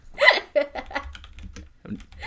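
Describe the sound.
A short burst of computer keyboard typing, a handful of quick clicks in an uneven rhythm, mixed with brief voiced vocal sounds at the start.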